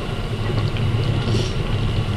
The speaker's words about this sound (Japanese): え寝台特急カシオペア号北の都札幌へ向けまして、え時間通り運転しております。